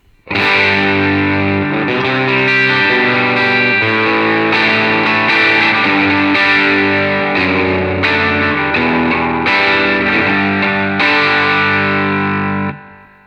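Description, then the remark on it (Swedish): Overdriven electric guitar, played through a Benson preamp with the gain turned up, plays thick, sustained distorted chords, changing every second or two at a steady, loud level for about twelve seconds before cutting off. No voices. “Men vi sätter på lite game. Yes. Kommer här, Benson preamp.”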